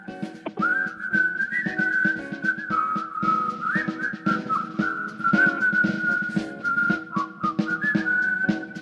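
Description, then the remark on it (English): A clear, sustained whistled melody glides over a full rock band, holding long wavering notes with drums and guitars pulsing steadily underneath. No one speaks. “that jumped out when you guys when I heard whistling, jumped out at me.”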